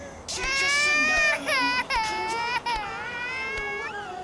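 A baby wails in long, high-pitched bursts with short breaths between them, loud, crying continuously for several seconds.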